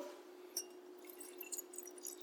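A canned drink, a blend from Solebury, is poured into a glass at a tasting, with soft fizzy crackles and small splashes scattered over a couple of seconds. It's quiet, over a steady low hum, with no talking.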